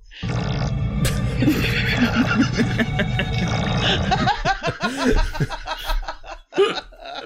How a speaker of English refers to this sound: telekinetically repels it and for some reason makes a sound of diarrhea or.